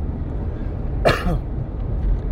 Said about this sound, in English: as you already heard from the last episode, I had a huge case of pneumonia, but I am back I do have a cough, which is really, really annoying. I do admit that.